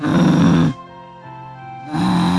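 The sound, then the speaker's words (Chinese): An angry dog growls low: two rough, rumbling bursts, one at the start and one at the end, with a softer, steadier hum between them. No one speaks. “只要低声吼叫就能解决问题，不需要到咬人的程度。”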